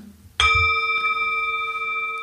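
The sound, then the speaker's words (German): A single gong stroke rings out loudly during a quiet candle-light meditation with children, its bright metallic tone sustaining steadily for a couple of seconds with only slight fading; no voices accompany it. “zu unterstreichen und einfach die Kinder einzuladen, so lange still zu sein und in die Flamme zu blicken, wie der Gong-Schlag noch klingt.”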